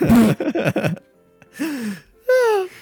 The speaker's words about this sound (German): Was war das denn? Ich habe gegähnt.